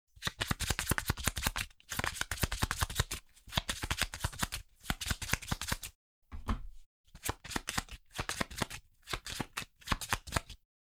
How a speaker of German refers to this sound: Dann mische ich wieder alle anderen Karten.